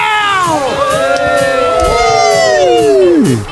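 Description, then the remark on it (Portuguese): A live studio audience cheers loudly and steadily, with many overlapping whoops and rising and falling yells layered over a dense crowd roar that fades near the end. “Hoje com essa plateia incrível!”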